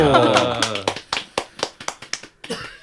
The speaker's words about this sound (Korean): 아 또 박수를 쳐야 되는 거 아닌가요? 박수.